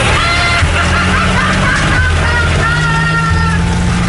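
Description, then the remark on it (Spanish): A tractor engine drives through city streets, a loud, steady low rumble that shifts pitch a few times as it revs, with a rough mechanical clatter running continuously throughout. “¿Qué haces a estas horas con un tractor por la calle?”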